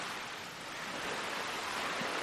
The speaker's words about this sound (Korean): 나는 파도가 해안의 철썩이고 또 철썩이는 소리를 듣는다. 파도가 들린다. 우리는 보트하우스 쪽을 향한다. 나는 파도가 해안을 철썩이는 소리를 듣는다. 나는 철썩이는 파도 소리에 발을 맞추려고 시도한다.